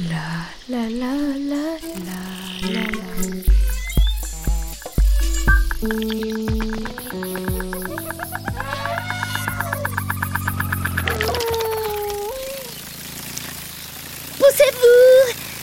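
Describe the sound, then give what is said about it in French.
A dragonfly's wings buzz in a fast, pulsing whir that wavers in pitch for a few seconds at the edge of a pond with calm water. Chirpy tones and a voice come before it, and the buzz fades out afterward. “Cette bestiole fait un bruit très léger qui ressemble à un vrombissement. J'ai trouvé C'est la libellule.”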